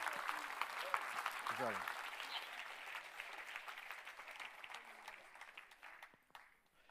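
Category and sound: crowd, audience applauding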